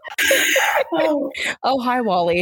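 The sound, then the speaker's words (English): A loud, shrill cat yowl bursts out for under a second, then a person starts talking right after it. “Sorry, that's my cat screaming.”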